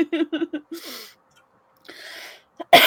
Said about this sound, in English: Excuse me for coughing in y'all's ears, guys. I'm sorry.